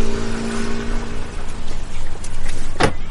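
A car engine idles with a steady low rumble and hum, broken near the end by a brief sharp clack like a car door, as a woman gets back into the car after struggling with its locked door.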